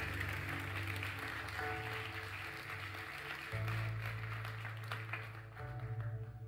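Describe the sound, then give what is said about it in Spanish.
An audience applauds steadily for several seconds, a dense wash of many hands clapping, over sustained low keyboard chords that shift pitch twice. “Alguien que le dé un fuerte aplauso a Dios y alguien que crea esta palabra.”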